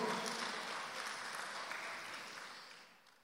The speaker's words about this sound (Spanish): Déselo al Señor ese aplauso, por favor.